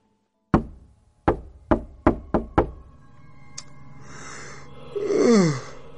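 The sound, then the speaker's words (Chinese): Six sharp knocks on a door around seven or eight in the evening, a single blow followed by a quicker run of five, then a low groaning moan rises and wavers near the end. No one speaks. “大约七八点钟左右，那敲门声又响了起来。”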